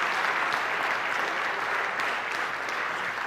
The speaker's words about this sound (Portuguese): Aplauda o nome dele, porque isso é o que a Bíblia nos ensina, queridos.